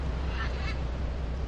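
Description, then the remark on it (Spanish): A short, harsh parrot squawk rises briefly over a steady rumble of a boat's motor and water noise, then fades back into the low drone. “y los chillidos del loro”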